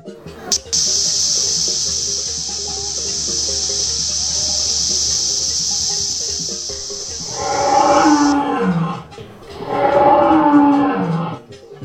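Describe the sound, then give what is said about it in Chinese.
A steady hiss gives way to two long, loud lion roars, each a rough, deep bellow that swells and then trails off with a falling pitch. “狮子大王住在炎热的非洲，夏天来了，狮子大王不停地叫着：“热啊，热啊！”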